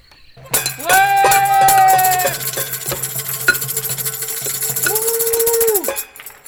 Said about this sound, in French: Bon là c'est notre petite touche de gauche euh, à nos applaudissements de 20h.